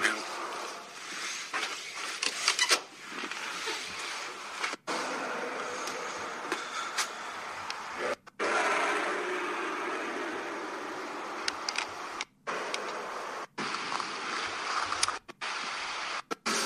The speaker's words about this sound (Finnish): Niitä kutsutaan hävittäjiksi, en mä tiedä, ei tässä se selvä.